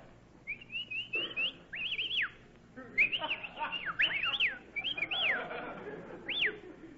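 Several loud, shrill whistles, made to hail a taxi cab, come in quick succession, some rising and falling in a warbling pattern, with a longer piercing whistle near the end over a murmur of background noise.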